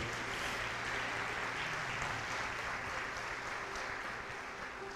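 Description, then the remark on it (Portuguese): A crowd claps steadily and loudly in praise of the name of the Lord Jesus Christ, a dense wash of applause that holds at an even level for the full stretch with no voices breaking through. “Então aplauda o nome do Senhor Jesus Cristo.”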